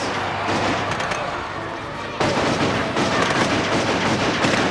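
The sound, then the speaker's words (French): Rapid, dense gunfire from a shootout involving a Magnum 737 and automatic weapons: many overlapping shots crackle and pop in an unbroken loud barrage, growing harsher and fuller about halfway through. “Jones sort son Magnum 737 et la fusillade s'engage.”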